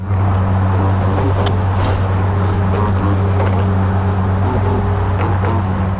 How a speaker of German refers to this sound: Also ich finde, es tönt nach Autos.